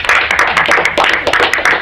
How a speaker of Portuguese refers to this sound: Bote, autorizo uma claquete de palmas.